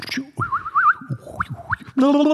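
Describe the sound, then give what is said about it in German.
A person imitates a starling's song: a run of wavering whistled warbles and quick upward chirps, ending in a short, buzzy sung note. “Mal, sing, mal wie der, sing mal, wie ein Star singt.”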